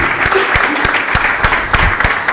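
A crowd claps steadily, dense overlapping applause with some sharper individual claps standing out, fairly close and loud throughout with no voices on top.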